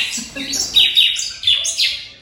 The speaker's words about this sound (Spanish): ¿Qué traen, pajaritos? ¿Qué se roban? Ya les puse pan en la mesa. Vengan.